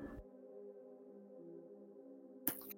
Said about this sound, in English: Uh, I need to get my fan to quiet down on my computer. Can you guys hear that in the background really badly?